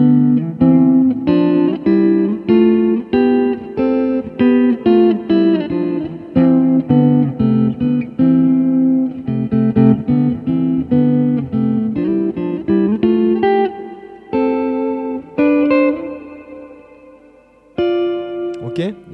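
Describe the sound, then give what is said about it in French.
An electric guitar plays a run of two-note chords in sixths, moving steadily up to C and back down, with a clean, slightly driven tone that is not too saturated, then pauses before a few final notes. “Jeu en Sixtes : Enrichir son JEU à la Guitare Électrique”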